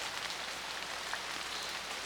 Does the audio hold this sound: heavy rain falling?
yes